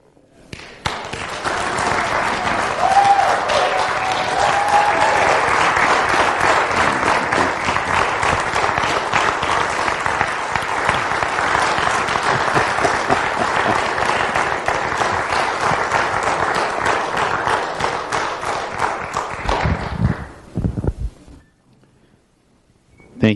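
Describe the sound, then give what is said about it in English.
A standing audience bursts into loud, sustained applause honoring a pastor, a dense wash of clapping from many hands that holds steady for about twenty seconds before quickly dying away. “And if you stood at home too, you clapped at home, I know it's an interactive thing.”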